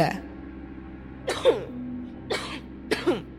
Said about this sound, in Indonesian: nah, batuk lagi.